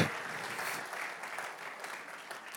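An audience claps steadily for the two or three people among them who do CrossFit, a dense wash of many hands that holds at a fairly even level for a few seconds without any voices on top.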